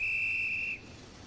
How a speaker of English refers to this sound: As Laura waits, Lean has Krasker's camera slowly track in on her, and as that happens, we hear the station master blowing his whistle.